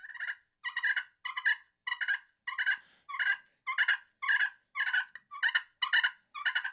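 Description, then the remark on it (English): An imitated tom turkey fighting purr, as aggressive toms make: about ten rapid, raspy bursts in a steady, aggressive rhythm, loud with brief gaps between them and no talking. “So you can emulate a tom doing a fighting purr.”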